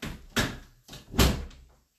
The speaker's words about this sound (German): Mach die Tür zu.